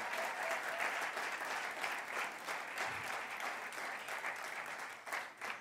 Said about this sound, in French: Est-ce que vous pouvez vraiment applaudir votre pasteur Vraiment.